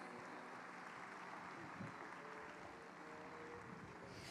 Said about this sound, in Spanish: Por favor, un aplauso para recibirles a ellas.